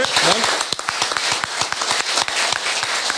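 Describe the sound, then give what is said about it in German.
An audience applauds, a dense, steady wash of many overlapping claps with sharp individual hits standing out. A voice briefly sounds over the clapping at the start. “vielen Dank, wunderschön, einen großen Applaus.”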